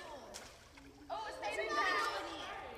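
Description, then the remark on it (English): Water splashes lightly in a small pool as 16 girls test water robots they built from Legos at a robotics workshop, their voices chattering and calling out, growing louder and busier about halfway through. “Once the robots were complete, they took them for an enthusiastic test drive in a small pool.”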